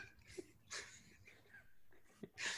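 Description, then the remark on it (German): Someone imitates a dolphin with their voice, making a few short, breathy squeaks and hissing wheezes in uneven bursts, with no talking. “Ich bin äh, auf hoher See und Delfin schwimmt vorbei.”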